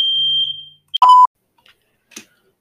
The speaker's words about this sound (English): Okay, ladies and gentlemen, I do apologize for the uh, sudden noise um, and the brief pause. Um, a fire alarm went off. Someone burnt some toast.